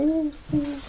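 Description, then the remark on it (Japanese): Two low, hollow cooing notes from a dove, each a smooth sustained hoot separated by a short pause, heard alone with no talking. “なんかね鳩じゃないですか鳩鳩なはずですよ”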